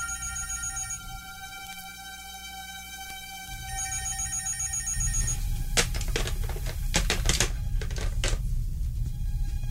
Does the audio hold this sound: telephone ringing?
yes